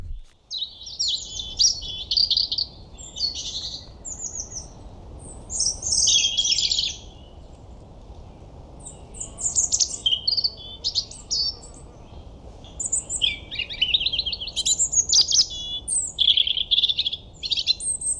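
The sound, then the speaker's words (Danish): A European robin sings alone, its high, thin warbling phrases coming in bursts separated by short pauses, clear over a soft, steady low background hum. “så her kommer, når du er på vej hjem fra byen, eller er et morgenmenneske, ubehageligt tidlig morgenmenneske, så vil du høre Korpkrop på Rode, a.k.a. Rødhalsen.”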